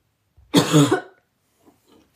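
A single dry cough from a scratchy throat bursts out, harsh and brief, followed by a couple of faint throaty sounds and near silence.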